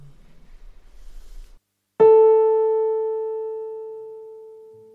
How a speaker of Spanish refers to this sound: El sonido que se suele tomar como referencia a la hora de afinar los instrumentos es el La de la cuarta octava. Este La se produce cuando una barra de metal, el diapasón, vibra a 440 veces por segundo. Vamos a escuchar un La de la cuarta octava.